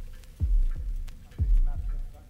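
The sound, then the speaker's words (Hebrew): A slow, deep heartbeat sound effect at the start of side one of a vinyl record album playing on a turntable thuds twice in paired lub-dub beats, each a muffled low thump with a softer echo, repeating at a steady, unhurried pace over a faint background hum. “כמו תינוק ששומע את פעימות הלב של אמו ברחם.”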